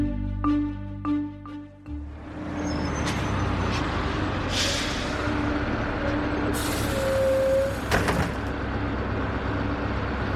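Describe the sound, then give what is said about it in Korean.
A bus rumbles in as it arrives, letting out sharp bursts of air-brake hiss, then a longer pneumatic whoosh as the door opens, over steady engine noise with no one talking. “버스가 도착하자 앞에 빈 좌석에 노파를 앉히고 짐을 내려놓는다.”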